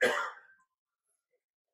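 A single light, short cough with a throaty, clearing quality at the start, then quiet for the rest of the moment.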